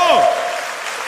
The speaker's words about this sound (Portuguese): Pode dar uma salva de palmas ao Senhor.